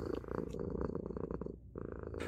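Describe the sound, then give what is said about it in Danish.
A cat, Bertram, purrs loudly while rubbing against a large ball of yarn, a steady rumbling vibration with rhythmic breathing pulses, briefly pausing near the end before resuming. “så Bertram synes bare, at det bliver mere og mere sjovt og går hen og smyger sig op af den store garnnøgle, mens han spinder højt.”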